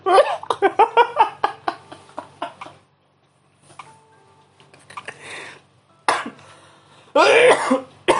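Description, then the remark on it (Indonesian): A loud run of rapid coughing bursts, then a brief quiet stretch, followed by a few more harsh, raspy coughs and throat-clearing sounds. “aduh duh batuk gue jadi batuk”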